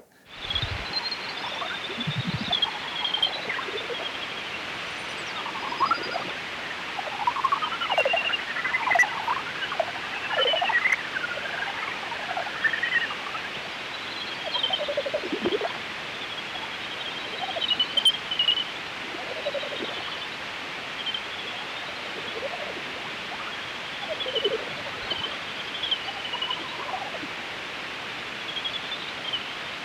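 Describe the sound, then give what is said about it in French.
Bat calls heard through a heterodyne detector: rapid, warbling chirps and clicks that rise and fall in pitch over a steady loud hiss, continuing throughout with no speech. “c'est complètement différent d'ailleurs du son hétérodine, qui est un autre type de son sur la même espèce, qui est beaucoup plus chantant.”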